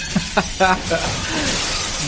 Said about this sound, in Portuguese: e barulho de vidro sendo quebrado por todos os lados.